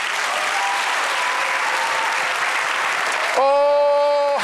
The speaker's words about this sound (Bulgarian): Ръкопляскай, ако вярваш.